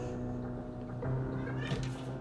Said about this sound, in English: Yeah, mommy's working, so my cat. Every time I, I do work or whatever, he's always like meowing and just getting all worked up, and it's just it's like a kid, but it's not. So you may hear him in the background meowing